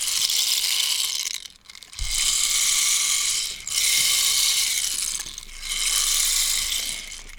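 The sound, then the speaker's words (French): A homemade ratchet instrument whirs in loud, rapid clattering bursts, imitating the sounds of construction work: three or four sustained rasping runs separated by brief pauses, with no voices. “et euh, les sons des travaux.”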